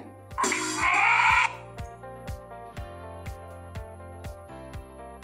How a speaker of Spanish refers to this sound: Very good. An elephant. Repeat after me. An elephant.